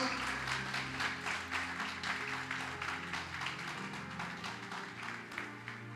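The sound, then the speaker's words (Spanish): An audience claps together for the Lord in sustained, dense applause for several seconds, a steady wash of many hands with sustained musical tones humming underneath. “Le puedo dar un aplauso al Señor con todo su corazón.”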